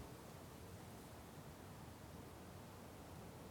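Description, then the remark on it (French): Wind blows steadily through bare trees, a soft, even rushing hiss with a faint rustle and no gusts or pauses. It stays fairly quiet throughout, with no voices. “Celui-là, comment il s'appelle C'est un, vent dans les arbres nus.”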